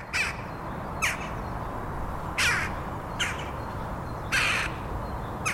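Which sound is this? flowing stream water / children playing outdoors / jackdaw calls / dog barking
jackdaw calls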